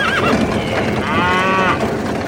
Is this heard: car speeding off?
no